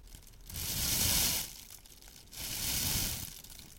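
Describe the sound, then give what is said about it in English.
A plastic bag crinkles in two bursts of bright, crackly rustling, each lasting about a second with a short quiet gap between them; no one speaks. “Je vais pour ma part débuter avec un sac plastique.”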